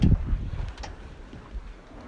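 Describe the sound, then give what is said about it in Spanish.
Wind buffets the microphone aboard a sailboat under way at sea, with grey clouds, the temperature dropping and waves rocking the boat; a low rumbling rush with a louder gust at the start, then steady churning noise and faint water sounds, no voices. “Este es el programa más especial de todo Radio Perla Negra, grabado en el mismísimo mar, navegando.”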